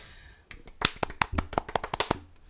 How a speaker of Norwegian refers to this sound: Ja, Dere har blitt veldig flinkere, så der, der skal dere ha applaus.